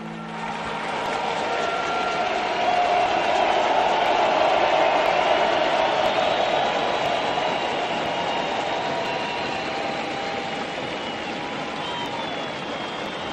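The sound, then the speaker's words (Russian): A crowd of people clapping hands outdoors as a group of armed security forces approaches their cordon, a dense, continuous wash of applause that holds steady and fairly loud for the whole stretch, with no voices standing out. “До этого кордону подходит еще группа силовиков со сброей, а люди просто пляскают в ладки. Можете эти аплодисменты почуть.”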